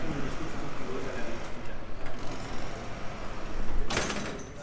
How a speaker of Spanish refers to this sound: Un instante, necesito la mano para cerrar la puerta.